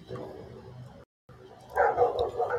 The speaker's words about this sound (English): That uh, barking you hear is my neighbor's dog because they don't care about anybody but themselves. And this dog has been going for like 20 fucking minutes.